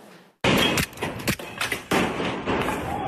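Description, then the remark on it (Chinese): Gunshots ring out in quick succession late at night outside a home in Sanxia, New Taipei City, where a group dressed in black also smashed cars and set off firecrackers. A run of sharp, loud cracks at an uneven rhythm over a constant, harsh wash of noise, with no one speaking. “清脆枪响连发，一伙人开始惊恐窜逃。”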